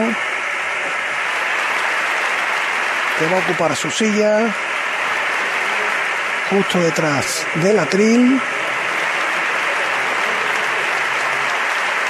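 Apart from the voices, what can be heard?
strong applause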